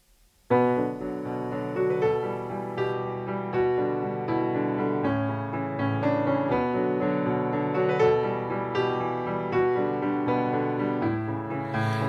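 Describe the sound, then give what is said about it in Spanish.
A pop song with a sung vocal kicks in after a brief moment of silence, then plays steadily and fairly loud with a full, dense band mix throughout. “La canción, de todas maneras, es bastante interesante y suena así.”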